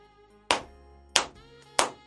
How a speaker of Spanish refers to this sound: Estaban aplaudiendo, tendrían fiesta de seguro.